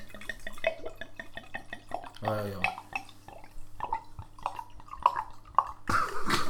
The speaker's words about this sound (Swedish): häller upp ett glas